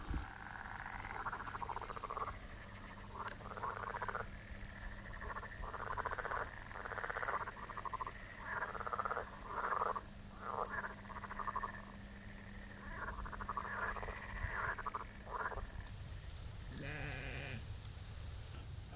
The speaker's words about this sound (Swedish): Nu alltså. Totalt mitt i natten och på en extremt ödslig plats. För att vara i Hallandet. Raksträcka. Fält på båda sidorna. Mer grodor.